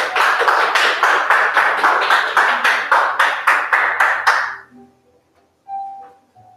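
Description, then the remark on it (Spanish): An audience applauds loudly for the Father (God) for about four seconds, the clapping falling into a steady rhythmic pulse, then it stops abruptly. A few soft tones and a brief chime follow in the near silence. “Mantén un aplauso fuerte al Padre.”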